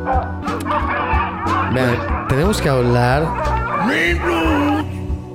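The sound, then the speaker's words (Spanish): Several dogs bark and yip excitedly, with high whining, rising-and-falling cries running throughout, while a person speaks briefly over the noisy commotion. “Para abajo los perros, para abajo.”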